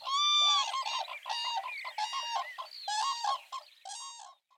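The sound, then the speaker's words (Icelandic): Large birds call loudly in a steady series of hoarse, trumpet-like honks, several voices overlapping in rough bursts for a few seconds before fading out. No one speaks. “Það heyrist hátt í þeim svona eins og lúðra, rámur lúðrablástur.”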